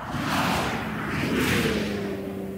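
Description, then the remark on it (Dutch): A W12 twin-turbo 635 hp SUV rushes past at high speed in a broad, steady roar with a swelling whoosh, and a low engine tone runs beneath the noise for a couple of seconds. “Het soeft voorbij.”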